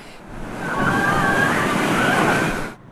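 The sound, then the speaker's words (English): Heavy surf on the Gold Coast, stirred up by the tail end of ex-tropical cyclone Seth, crashes and rumbles beneath the sand pumping jetty in a continuous loud roar of churning white water, swelling after a quieter start and holding steady before cutting off abruptly. “Long lines of white water rumbled through just beneath the sand pumping jetty.”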